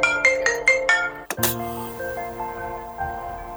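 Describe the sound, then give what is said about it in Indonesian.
A mobile phone ringtone from an incoming call by a father plays a quick series of bright repeated tones, then cuts off with a sharp click, leaving a lingering sustained chime that fades over a faint background. “mohon maaf ya sebelumnya agak kepotong dan tiba-tiba pasti nantinya bakalan ada suara HP tadi agak tak paus karena bapak nelpon ya”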